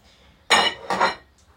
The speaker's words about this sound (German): so die Hände in warmem Wasser und dann hier so überwischen über, das, über den Teller mit dem Lappen. Ach, ich, ich, ich mag das irgendwie. So, der tropft ganz schön.